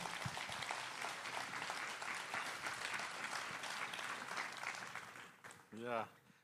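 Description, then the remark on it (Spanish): Sustained audience applause welcoming a pastor, a dense, steady clatter of many hands clapping for several seconds, fading near the end as a voice briefly speaks. “ayúdenme a recibirlo, por favor, con un fuerte aplauso.”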